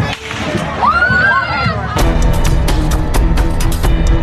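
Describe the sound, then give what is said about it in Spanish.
Outdoor crowd noise at a Fourth of July Independence Day parade in Chicago and a high voice rising briefly, then a sudden volley of loud gunshots: many sharp cracks in fast, irregular succession over the crowd's din. “Tras la primera detonación, viene una lluvia de balas.”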